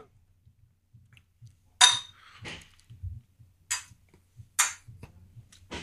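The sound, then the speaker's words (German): Several sharp clinks ring out as glasses are clinked together in a toast, separated by brief pauses, with faint low rumbling and small knocks in between; no one speaks. “Prost. Prost.”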